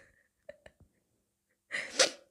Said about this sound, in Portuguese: uh, peço desculpa, peço desculpa, isto fui eu a fungar o nariz.